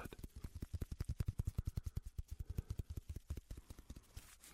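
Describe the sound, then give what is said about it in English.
Rapid, steady tapping with a hollow, resonant thud from a stick tapping on different areas of a person's back over the lungs. Dozens of evenly spaced strikes over several seconds, moderately loud, with no voices. “That hollowness you hear, that's your lungs”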